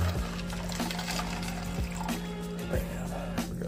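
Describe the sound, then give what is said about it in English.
Water pours steadily into a drink mixer bottle holding W Gearless Energy Dragonade drink powder, making an energy drink for a taste test. A continuous splashing rush with a hollow, filling tone and faint gurgles throughout, no talking. “Dump in the water.”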